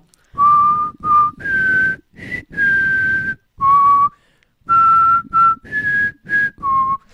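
A person whistles a short melody, clear bright notes in quick phrases with brief pauses between them, no talking.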